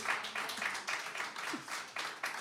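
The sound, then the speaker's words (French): A church audience applauds steadily, dense clapping with a few faint voices mixed in beneath it. “Un bel applaudissement tous les deux”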